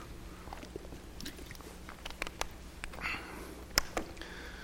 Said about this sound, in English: I'm going to take a quick sip of water here.